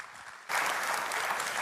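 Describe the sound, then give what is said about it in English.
Applause from an audience bursts in suddenly after a brief quiet moment as a man comes up to the front, a dense, steady wash of many hands clapping that stays loud and even to the end. “Let's give him a hand as he comes up here.”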